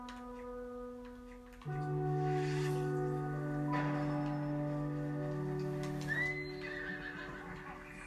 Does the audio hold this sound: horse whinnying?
yes